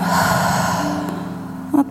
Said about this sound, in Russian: Делаем глубокий вдох, задерживаем дыхание и с выдохом отпускаем все напряжение из тела.